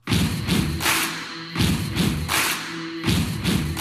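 A rock song's intro: a loud stomp-stomp-clap beat repeating steadily, with sustained low instrumental tones beneath and no singing yet.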